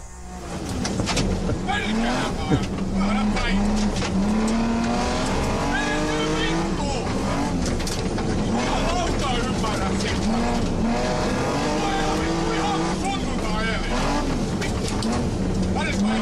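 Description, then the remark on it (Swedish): A car engine drones and revs steadily as the car drives, recorded by a camera placed in the car, pitch rising and falling with the throttle, with hints of tire noise and people talking over it. “Eh, och, och, eh, du får inte bli arg här nu då, men vi ska titta lite grann på hur det såg ut när ni var ute och körde”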